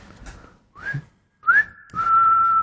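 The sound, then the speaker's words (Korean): During a broadcast, a person whistles live, re-creating the whistled part of a song: a few quick rising notes, then a longer held tone that wavers slightly, clear and fairly loud with no talking. “아, 그습니다 휘파람을 네. 직접 불어가지고.”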